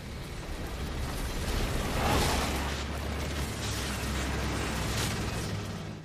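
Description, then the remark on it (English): A giant nuclear explosion roars as a dense, sustained wall of deep rumble, swelling to a loud peak early on and then rolling steadily on without fading, with no voices. “And you can see we had to basically remove the sky, replace the sky, add quite a bit of debris and dust and flame to the ground, and of course the giant nuclear explosion.”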